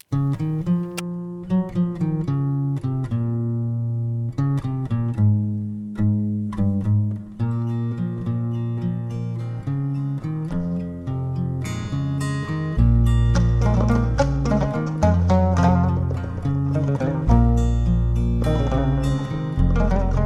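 A recorded song plays steadily and fairly loud with layered melodic instruments, and a heavier, deeper bass line joins about two-thirds of the way through. Nobody talks over it.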